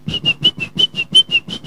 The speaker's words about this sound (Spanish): No sé por qué me salió ese silbido, no entiendo por qué